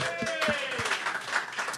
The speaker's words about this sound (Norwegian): Gratulerer! Eh, Applaus på tete, eller? Tusen hjertelig.